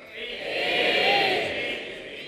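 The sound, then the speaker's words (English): A live crowd shouts out together in a loud, sustained roar of many voices calling out A, B or C answers, mostly B with some A, swelling to a peak midway before easing slightly. “As have been shouting very loudly towards the end.”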